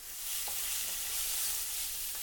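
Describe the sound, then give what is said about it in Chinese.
A steady, hissing sizzle of oyster sauce mixed with water being stir-fried in a hot pan, with a couple of faint clinks from stirring, continuous and bright across the whole clip with no voices. “将蚝油和水混合后，下锅拌炒，”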